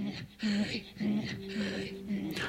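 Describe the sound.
Fairly loud katajjaq, Inuit women's throat singing: short guttural, breathy pulses repeat in a steady rhythm about twice a second, the voices imitating the yips and panting of barking dogs; the song evokes sleds crunching on snow, the blizzard and barking dogs.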